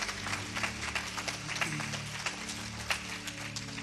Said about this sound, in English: Hey, let's give these leaders a big round of applause. Can we do that? Awesome.